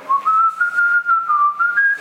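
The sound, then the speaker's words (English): A person whistles a short, smooth patriotic melody, imitating a flute playing in the background of a speech, with long held notes that glide gently up and down, clear and fairly loud with no talking. “Um, you get, you know, it's like he's talking about George Washington and he's talking about Abraham Lincoln and these principles, and you can hear the flute, you know”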